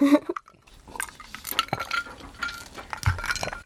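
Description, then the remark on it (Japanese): Glasses knock against an acrylic partition during a toast with Hakutake Shiro shochu, in a handful of sharp clinks and dull taps, spread irregularly over a few seconds with faint background clatter and no talking. “乾杯乾杯はいアクリル板の音 ゴンゴン”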